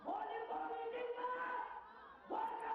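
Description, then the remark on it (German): A crowd of Gorkha protesters at a demonstration in India shouts together in a loud, continuous roar of many overlapping voices, dipping briefly before surging up again near the end. “Deshalb wird der Ton auf den Demos immer aggressiver.”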